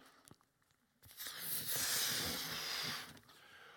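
A faint rustle, then a sustained breathy rush of air about two seconds long as breath is blown into a red balloon, fading out at the end with no talking.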